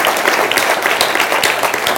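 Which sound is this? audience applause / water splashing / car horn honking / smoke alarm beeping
audience applause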